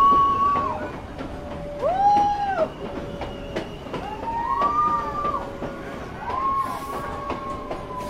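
A mountain train carrying passengers rumbles steadily along the track with rhythmic clickety-clack beats, while recurring high squealing tones rise and fall over the constant rolling noise.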